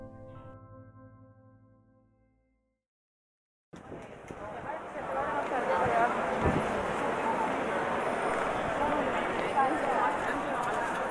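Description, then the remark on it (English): A busy morning street crowd in the heart of Florence, Italy fills the scene with a steady, dense murmur of many voices and footsteps, after a brief musical tone fades out into a moment of silence. “You're hearing the morning crowds in the heart of Florence, Italy, the capital of Tuscany and an international icon for art, culture, history, economy, and industry.”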